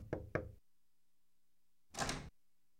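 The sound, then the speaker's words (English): A couple of quick, light knocks on a front door, followed after a short pause by another soft thump, with no voices. “Early on Saturday, the neighbors all heard the rumble and squeak of Jenny's wagon on the front walk, followed by her timid knocking at the door.”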